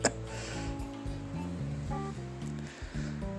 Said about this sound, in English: Ooh, that was thunder.